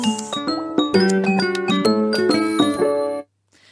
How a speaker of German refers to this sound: das ist so ein schöner Klangteppich, den, äh, äh, Jingle, Sound. Jingle, Sound. Sound, Sound, den wir da haben.